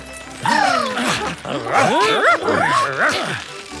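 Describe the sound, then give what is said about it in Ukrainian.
A small dog named Mo yips and barks excitedly in a rapid string of high, rising and falling calls, fairly loud, with no talking over it. “Отже, чоловік на ім'я Джо, його песик на ім'я Мо, хлопчик на ім'я Лео, дівчинка на ім'я Індиго, білий голуб та крихітний тендітний метелик, чиїх імен ми не знаємо, почали розминатися.”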